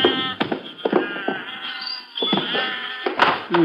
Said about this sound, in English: You think the sheep will be all right? Sure, they'll go for that shade.